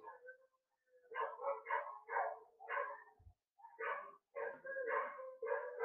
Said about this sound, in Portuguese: Mano, fica isso a noite inteira, mano. Fica isso a noite inteira. Os cachorros uivando pra caralho, mano.